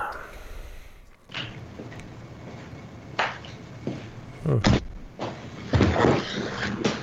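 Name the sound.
door being closed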